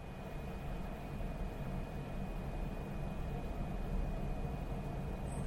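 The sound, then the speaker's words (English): A steady, even machine drone of industrial equipment running smoothly, a broad low rumble with a faint constant high whine, unchanging throughout with no knocks or bangs and no voices. “That is the sound of well running equipment in an industrial setting.”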